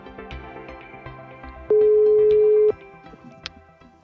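A telephone ringback tone: one steady, loud one-second beep while a Bergens Tidende call is placed to the infection control unit at Haraldsplass hospital, standing out over quiet background music, with no one speaking.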